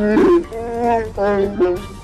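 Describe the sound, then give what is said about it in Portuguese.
A person growls in imitation of an animal, a fairly loud voiced snarl in a few drawn-out bursts with sliding pitch and no words. “Aí eu rosno, pulo o balcão de volta e, e aponto e vou me encaminhando pra saída.”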